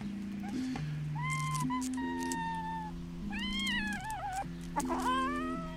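A female cat meows repeatedly in drawn-out, complaining yowls while being carried up again during climbing training, rising and wavering in pitch, over a steady background of low droning music.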